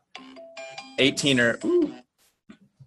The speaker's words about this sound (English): that was my alarm to go to the gym. Good thing I'm here drinking beer instead.